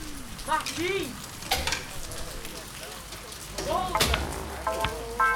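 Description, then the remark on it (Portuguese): Steady rain hisses across the whole scene, a dense, even patter, while voices intermittently call out to a boy to come in out of the rain. “Sai da chuva!”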